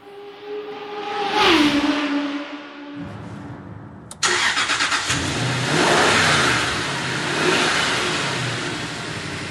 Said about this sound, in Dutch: We gaan rijden in de Jaguar XK8, de Cabrio versie. De opvolger van de beroemde Jaguar XJS.